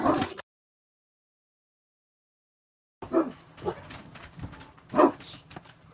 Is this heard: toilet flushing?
no